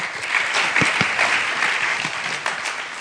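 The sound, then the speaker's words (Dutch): Steady audience applause, a dense wash of many hands clapping at a fairly loud, even level for a few seconds, with no one speaking over it. “Let's give them a hand. Bedankt allemaal. Laten we een applaus geven.”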